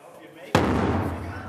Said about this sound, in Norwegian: What's that for? for a drum? Yeah, it's the Mahler hammer. Because they sent us a small box, which is not quite right. We needed a bigger one, but we said we're going to use this, which will still.